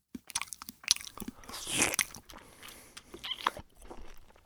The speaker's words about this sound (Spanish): Pasando a otros pendejos, el pendejo que hace sonidos al sorber, masticar o tragar. Este tipo de pendejos somos todos y no es nadie al mismo tiempo. ¿No les pasa que están comiendo con alguien en silencio y lo único que escuchan es esto?